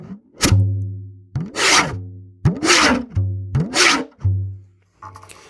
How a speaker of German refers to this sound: Und das war ja wohl eindeutig erkennbar, dass ich da mit einer Schere ein Blatt Papier durchschneide, oder?